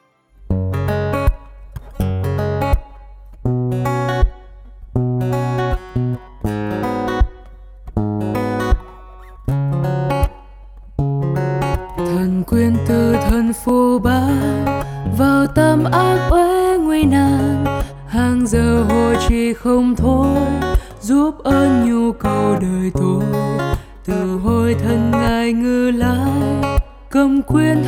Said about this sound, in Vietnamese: Và bây giờ, xin mời bạn cùng hòa lòng lắng nghe bài hát sau thay cho lời chào